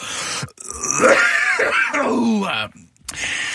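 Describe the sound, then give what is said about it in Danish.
A person choking after something went down the wrong way: strained, gasping vocal sounds with rising and falling groans for about two seconds, a brief pause, then another rough burst. “Jamen, det var da et galt rør.”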